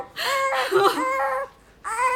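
A baby wails loudly in two long, strained cries, a brief pause, then a third cry starting up again.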